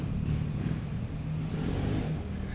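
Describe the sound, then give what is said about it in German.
A small motor scooter engine revs steadily on a street, its buzzing drone holding a low pitch with slight rises and dips throughout, no voices present. “Die Leute lieben hier ihre Roller”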